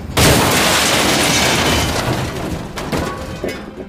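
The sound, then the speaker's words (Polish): A speeding train derailing at night on rails unscrewed by saboteurs: a sudden loud roaring impact, then a sustained wash of grinding, clattering debris with sharp metallic bangs, gradually easing off without fully dying away. “Maszyna wypadła z torów”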